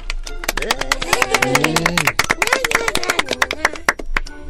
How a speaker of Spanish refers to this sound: Y todas las niñas aplaudieron.